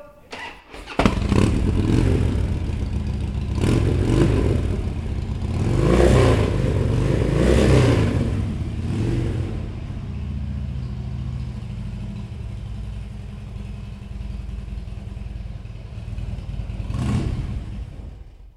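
A Harley motorcycle engine cranks and fires up abruptly, then settles into a loud, lumpy idle with a couple of throaty revs rising and falling, with no talking. It is started at a Harley mechanics course at Tokyo Technical College of Automobiles, a vocational school.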